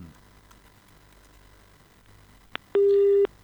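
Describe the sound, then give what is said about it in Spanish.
A telephone busy tone after a dropped mobile phone call cuts in near the end: one loud, steady electronic beep lasting about half a second, preceded by a faint click, over low background hiss with no talking. “Se fue. Eh, este René pues, siempre pues. con problemas en, la, en el celular.”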